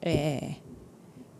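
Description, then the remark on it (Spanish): A steady, soft air-conditioner hiss runs in the background, continuing on its own after a brief spoken vocalization at the start; the air conditioning is switched on in Monterrey, where it is nearly 40 degrees. “Eh, si oyen un shh atrás en el sonido es porque estoy en un lugar en donde tengo prendido el clima, pero si no prendo el clima”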